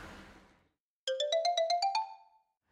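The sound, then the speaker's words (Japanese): A telephone ringback tone as a call is placed: a rapid train of about nine electronic beeps blending into one warbling ring, clear, following a short burst of noise and a moment of silence. “ちょっと電話していいですか”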